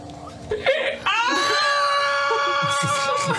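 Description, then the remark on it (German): A voice imitates a panicked donkey's bray: a brief rising sound, then one loud, strained, sustained cry held for over two seconds, shrill. “Von einem panischen Esel.”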